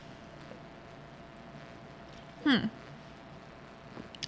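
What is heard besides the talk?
sipping and swallowing water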